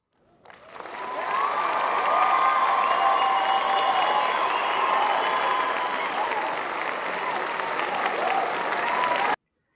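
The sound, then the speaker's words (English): Sustained applause and cheering from a live studio audience, swelling quickly and holding steady and loud for several seconds before cutting off abruptly, with no one speaking over it. “Thank you to our live studio audience. You guys are great as always”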